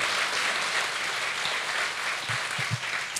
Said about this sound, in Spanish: Un aplauso, Señor. Aleluya.